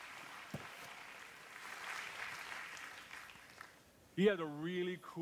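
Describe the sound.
A crowd applauds steadily for about four seconds, a dense wash of clapping, before a man's voice starts speaking over the tail end.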